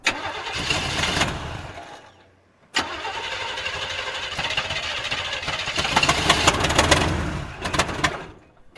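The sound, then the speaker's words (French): A car engine with a burnt-out motor cranks and sputters, trying to turn over, stops briefly, then grinds again in a long, labored attempt with uneven bursts, fairly loud, never catching cleanly. “Allons bon, qu'est-ce qu'elle a cette voiture”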